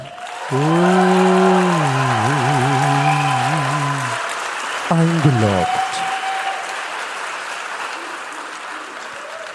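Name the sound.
audience applause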